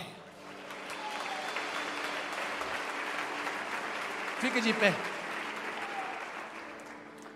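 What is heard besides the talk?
loud audience applause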